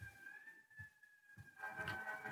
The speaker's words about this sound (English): Hold, please. There. Hold, hold for, for sirens.